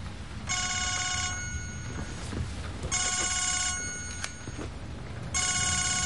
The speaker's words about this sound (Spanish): El escritor toma asiento frente a ella, que mira su móvil que suena sobre la mesa.